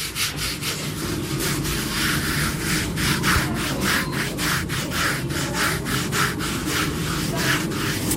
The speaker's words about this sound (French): vous brossez le cheval, c'est ça euh, Ouais, d'abord, là, je l'étrie. Ça veut dire que j'essaie de faire sortir la saleté euh, du poil. Et après, je passerai la brosse.